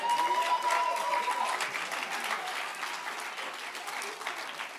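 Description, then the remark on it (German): A church audience in Mannheim claps for itself steadily for several seconds, a dense patter of many hands that holds fairly even before easing slightly toward the end, with a faint tonal hum briefly audible near the start. “Gebt euch mal selber einen Applaus.”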